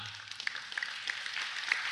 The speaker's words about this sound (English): Right now, I would imagine that it was a volunteer who started that clapping.